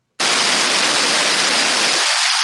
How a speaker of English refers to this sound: Static again. Oh wait, did it go away? No, it didn't.